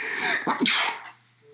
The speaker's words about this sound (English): I gotta sneeze.